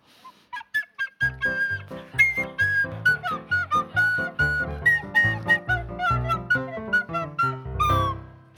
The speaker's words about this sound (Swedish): Nu har jag en flöjt i händerna hela kvällen.